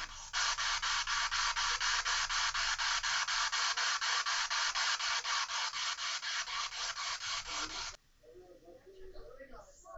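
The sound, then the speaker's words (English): Loud, harsh radio static chops rapidly and steadily as a spirit box sweeps through stations for about eight seconds, then cuts off abruptly, leaving faint voices and quieter room sounds. “Do you want me to turn off the spirit box?”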